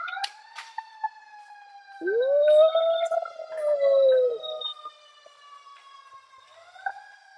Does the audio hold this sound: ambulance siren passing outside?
yes